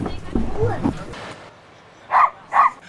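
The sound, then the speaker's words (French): A dog barks twice in quick succession, sharp, on a beach, after a few seconds of muffled voices and outdoor background noise. “On aura tout eu, hein. le chien, les vélos, les enfants qui crient.”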